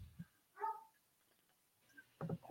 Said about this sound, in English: The first session, I oh, now I got dogs barking. But we like dogs. That's fine. we like dogs.